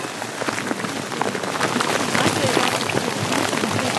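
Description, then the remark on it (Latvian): Steady rain patters on a hard surface, a dense, continuous hiss of drops with scattered sharper ticks, moderately loud, growing slightly fuller over the few seconds. “Ok, neliela lietus pauze klausītāji.”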